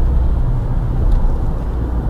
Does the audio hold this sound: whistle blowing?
no